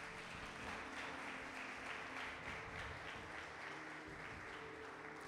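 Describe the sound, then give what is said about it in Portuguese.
A crowd of worshippers claps steadily for several seconds in applause for the Lord, a dense, sustained wash of applause with no voices standing out above it. “Se você crê nisso, dá uma salva de palmas ao Senhor.”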